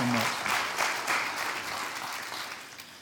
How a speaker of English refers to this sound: So, would you give me a hand in welcoming